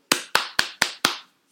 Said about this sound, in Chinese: 我也要对于在那一天有进场的帮迷朋友，给你们掌声。